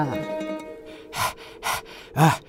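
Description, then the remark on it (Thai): A voice acts out the heavy, out-of-breath panting of a gate-guarding demon running in: three loud, breathy gasps spaced roughly half a second apart, following a brief drawn-out vocal tone at the start. “ปีศาจที่เฝ้าประตูก็วิ่งกระหืดกระหอบ เข้ามาบอกว่า”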